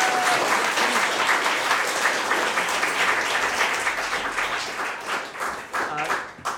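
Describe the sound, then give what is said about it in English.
An audience applauds the adventurers at the end of a Dungeons and Comedians show. The clapping is loud, steady and dense, filling the whole stretch, with scattered cheers mixed in. It thins slightly near the end. “A big round of applause for our adventurers!”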